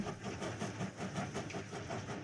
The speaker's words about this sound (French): Mais retournons dans le train entre Berlin et Goslar, où Magda sourit à l'homme assis en face d'elle.